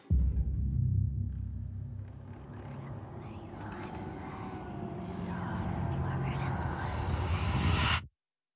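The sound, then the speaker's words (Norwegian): A deep, ominous low rumble swells and sustains for several seconds, loud, with faint airy whooshes and whisper-like textures drifting above it before it cuts off abruptly; the opening of a new trailer for Guillermo del Toro's film Crimson Peak. “En ny trailer til Crimson Peak. Vi må høre litt på det her.”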